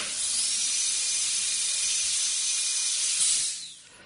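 medical sound, dental drill

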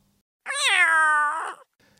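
animal, cat meowing

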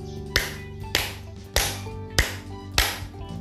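human body sound, five hand claps

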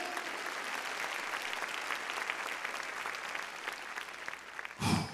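crowd, church audience clapping loudly

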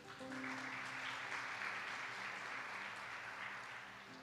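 crowd, round of applause

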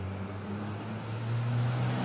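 vehicle, car passing by

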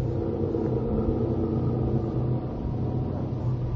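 vehicle, truck engine rumbling

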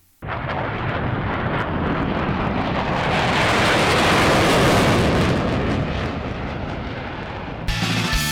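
sound effect, jet airplane taking off

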